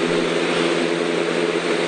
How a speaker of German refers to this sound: für mich klingt das so wie ein Ventilator. Wenn das ein bisschen dumpfer wäre, könnte man das auch als, als Flugzeug nehmen. Flugzeuggeräusche. Eine Propellermaschine.